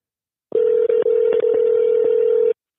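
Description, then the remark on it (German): A phone call's ringing tone: one steady, mid-pitched electronic beep held for about two seconds, fairly loud and alone, with no voices over it. “Es klingelt auf jeden Fall.”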